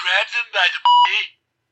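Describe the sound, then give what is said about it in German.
A loud, steady electronic censor beep from a novelty sound box, a flat mid-pitched tone lasting about a fifth of a second, cuts into a burst of muffled speech that resumes right after it. “es ist gepiept.”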